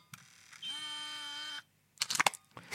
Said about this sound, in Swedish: En gammal, det här är en gammal Canon Powershot S50. Nu stänger, mm. nu stänger jag ner den.